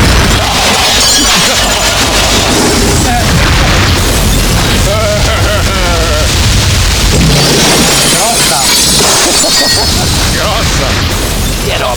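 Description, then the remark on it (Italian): A car bomb explosion from a bomb placed under a car: a loud blast followed by a sustained roar of shattering and crashing debris that fills the whole stretch, with voices faintly audible beneath the noise. “Io al massimo per fare uno scherzetto metto la bomba sotto la macchina come questa.”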